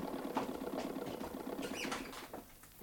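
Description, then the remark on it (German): A sewing machine clatters steadily at moderate volume, a fast mechanical rattle with scattered ticking and whirring that eases off toward the end; no one speaks. “Ich höre ja die Nähmaschine klappern.”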